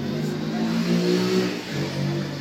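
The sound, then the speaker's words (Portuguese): A motorcycle engine revs loudly, its pitch rising and dipping in a couple of throttle surges over a steady, rumbling idle. “para a moto de novo.”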